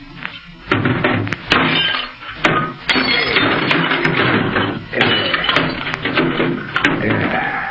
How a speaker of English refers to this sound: Yeah, to make sure nobody else hears, I'm going to wreck this short wave set.